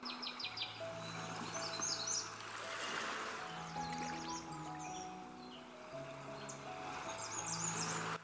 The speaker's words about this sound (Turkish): denizin ve doğanın sesi gittikçe rahatlatıyor.